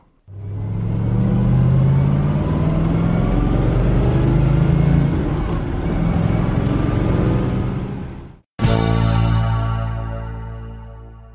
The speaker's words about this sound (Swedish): Och så här låter en ISO Revolta